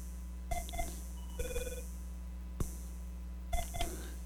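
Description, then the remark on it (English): A telephone rings with short electronic trilling bursts that repeat every second or so, fairly quiet against a steady low hum, with no one speaking: an incoming call to a call-in show at radio station KZUM. “Oh, that was a phone call.”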